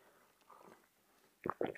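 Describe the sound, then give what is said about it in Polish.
A quiet pause, then a couple of short slurping sips of tea from a cup, each a brief wet burst of mouth noise, with no talking. “łyk herbaty”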